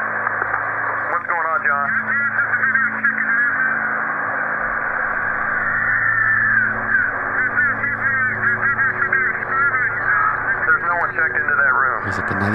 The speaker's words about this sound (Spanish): Ahí ya va caminando por el pasillo. Escuchen los gritos.